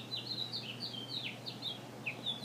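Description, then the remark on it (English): A bird sings a quick run of bright, slurred whistled notes, repeating in a steady chattering phrase over a faint low hum. “And today we celebrate his death with birdsong.”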